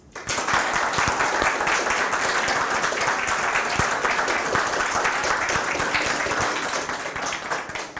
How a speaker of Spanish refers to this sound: Fuerte aplauso.